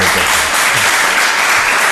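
Loud, steady applause from a crowd, a dense continuous wash of clapping with a faint murmur of voices underneath.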